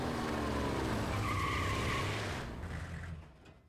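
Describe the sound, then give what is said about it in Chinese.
A white BMW roars in with a loud engine rush, then its tires squeal in a sustained, rising skid before the noise fades out over the final second. “没有多长时间，一辆白色的宝马呼啸而来。”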